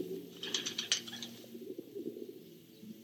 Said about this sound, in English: Are those pigeons? A densely packed mass of roosting pigeons, to be exact. When I noticed them in the background, I transferred the recording tape so I could isolate and amplify.